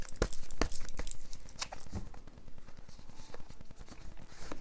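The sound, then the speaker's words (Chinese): Crinkling plastic wrap and a few sharp tearing snaps as a packaged oracle card deck is unwrapped, a steady rustle with scattered louder crackles throughout, no voices. “来，我把它打开。”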